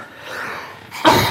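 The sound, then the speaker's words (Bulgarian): A single sharp sneeze bursts out after a brief soft intake of breath, loud and abrupt, with no talking around it. “На здраве. Да, мерси.”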